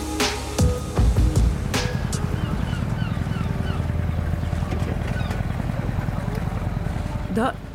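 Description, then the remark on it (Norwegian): A small fishing boat engine chugs steadily as boats full of fish come in to the quay at Myre in Vesterålen, Norway, during the skrei cod fishery; its low throbbing drone is continuous throughout, with gulls calling and faint dockside sounds mixed in. “Små sjarker og større båter kommer inn til kai, fulle av fisk som blir levert inn på fiskemottakene, for å bli sløya og lagt på is.”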